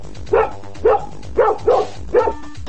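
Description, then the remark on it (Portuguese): A dog barks five times in a steady, evenly spaced rhythm, each bark short, loud and mid-pitched, with no talking over it. “Essa é uma discussão canina, né?”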